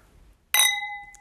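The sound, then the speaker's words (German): A single bright clink as two wine glasses touch in a toast, followed by a clear ringing tone that slowly fades. No one speaks. “Prost.”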